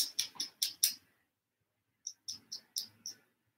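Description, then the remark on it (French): A small gnawing sound: two quick bursts of sharp, scratchy nibbles, about five bites each, separated by a brief pause. Quiet and crisp, with no voices. “Un petit bruit de grignotement attire son attention.”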